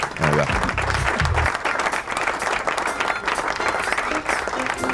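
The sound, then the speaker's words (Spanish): Sustained applause from a crowd fills the whole stretch, dense and steady, with a brief low voiced sound or musical tones near the start underneath the clapping. “Aplauso, por favor, aplaudime.”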